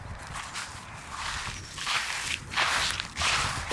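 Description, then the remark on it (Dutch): Footsteps crunch through frozen, frosty grass, white with frost, several crisp steps in a steady walking rhythm with a brittle crackling texture, heard alone without talk. “dat het gras weer kraakt.”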